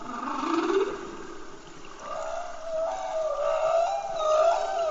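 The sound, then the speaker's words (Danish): Humpback whale song: long, sliding tonal moans that rise and waver, one low swoop followed by a sustained wavering call, resonant and continuous with a faint watery hiss beneath. “Det er nemlig lyden af en pukkelval.”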